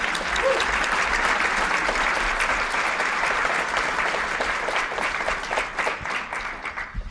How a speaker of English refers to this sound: Give her a bomb diggity applause.